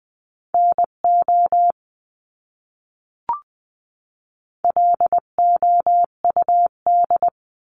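Morse code beeps in a steady mid-pitched tone, keyed in quick short and long pulses at 18 to 20 words per minute, sending a word in two clear bursts separated by a pause with a single soft click between them.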